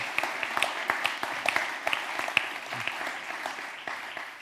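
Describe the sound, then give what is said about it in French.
An audience applauds the young people who are involved, a dense, steady wash of many hands clapping, with a few sharper individual claps standing out before the applause thins slightly at the end. “Je propose qu'on applaudisse ces jeunes qui s'impliquent.”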